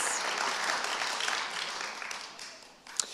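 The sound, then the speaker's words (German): A church audience applauds itself during a service, a dense wash of many hands clapping at once, holding at an even level throughout with one sharper clap standing out near the end. “Gebt euch selber mal einen Applaus.”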